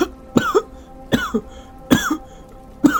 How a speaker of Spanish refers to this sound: Hace mucho que tiene usted esa tos.